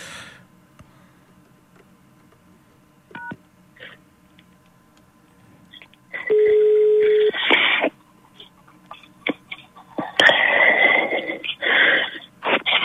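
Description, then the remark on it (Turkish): A telephone call is placed to a listener who wants to join a live broadcast. A steady electronic tone sounds for about a second, followed by bursts of harsh line noise and clicks. The sounds are loud, and there is no talking. “Bir beyefendi arayacağım o da dinleyicimiz tamam.”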